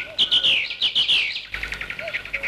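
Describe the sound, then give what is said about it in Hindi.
Birds chirp and twitter continuously in trees laden with flowers and fruit in spring, in bright, rapid bursts, several calls overlapping in a busy outdoor chorus, with a second quicker series of repeated chirps toward the end. “चारों ओर फूलों फलों लदे हुए वृक्ष ही वृक्ष थे उस पर पक्षी चहक रहे थे”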